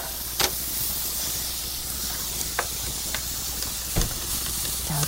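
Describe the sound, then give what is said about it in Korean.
Beef stir-frying in a pan while being stirred with chopsticks: a steady, bright sizzling hiss runs throughout, broken by a few sharp clicks and scrapes against the pan. “지금 고기가 볶아지고 있어요.”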